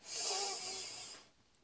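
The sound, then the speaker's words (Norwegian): A single steady inhale drawn in through the nose, a soft airy hiss lasting about a second before fading to quiet. No one speaks during it. “Og da begynner vi med å puste inn med nesa.”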